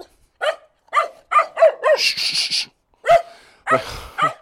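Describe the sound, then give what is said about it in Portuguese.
A dog barks aggressively in a rapid string of sharp, loud barks, mixed with growly snarling bursts, while trying to bite a person. “Está aqui um cão a tentar morder-me.”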